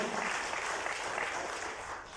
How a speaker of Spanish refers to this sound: Dáselo al Señor ese aplauso fuerte, por favor.